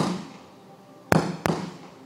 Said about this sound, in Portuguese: É tiro.